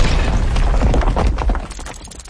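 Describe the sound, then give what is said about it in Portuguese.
A thunder sound effect: a loud, deep rumbling roll with crackling texture that holds steady for a couple of seconds, then begins to fade slightly at the end. “Cadê a trovoada, Thiago?”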